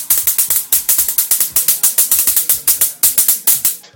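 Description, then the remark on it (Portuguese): An electric mosquito zapper crackles loudly as it fries a mosquito, a rapid, steady string of sharp snapping bursts, with no voices. “Quando ela pega e vai fritando o, o pernilongo e você sente aquele cheiro de sangue queimado, meu.”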